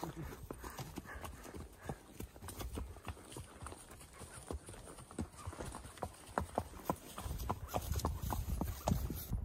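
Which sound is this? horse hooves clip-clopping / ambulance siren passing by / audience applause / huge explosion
horse hooves clip-clopping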